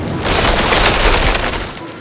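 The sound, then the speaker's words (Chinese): A big tree, blown down by strong wind and rain, crashes down in front of a school bus with a loud, sustained splintering roar over a deep rumbling boom, lasting about two seconds before tapering off. No voices are heard. “一棵大树倒在校车面前，校车紧急刹车，后面的货车也被挡住了。”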